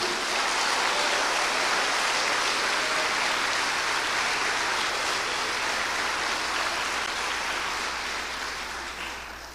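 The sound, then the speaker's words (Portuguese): Sustained audience applause at a religious sermon, after the preacher asks the audience to applaud: a dense, steady wash of many hands clapping that holds loud for several seconds and begins to taper toward the end, with no voices over it. “Então, pode aplaudir.”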